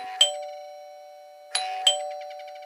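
A doorbell chimes three times: one struck tone, then after a pause a quick two-tone ding-dong, each note ringing out and decaying clearly with no voices.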